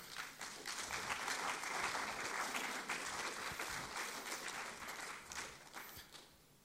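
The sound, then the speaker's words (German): Steady applause from an audience as a person comes onto the stage, many hands clapping together in a dense, sustained wash that holds for several seconds before tapering off near the end. “Geben wir doch immer herzlichen Applaus.”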